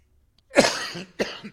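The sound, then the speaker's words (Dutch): Two harsh coughs from someone who choked on a sip of water burst out one after the other, the first longer and rougher, the second short and sharp, with no talking around them. “He, verslik me in een slokje water.”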